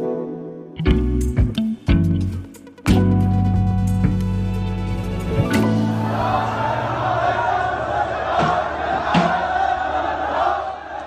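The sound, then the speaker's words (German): Hundreds of protesters shout slogans in a street in Baghdad at the end of June, outside the Swedish embassy, loud. Sustained droning tones and sharp bangs come first, then a dense wall of chanting voices continues. “Da stehen Hunderte von Demonstranten auf der Straße. Sie schreien Parolen, sie protestieren.”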